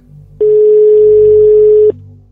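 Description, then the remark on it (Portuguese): A single long, steady ringback tone from a call to a mobile phone sounds for about a second and a half, loud and clear over a faint low hum, with no voices. “Só que o telefone toca.”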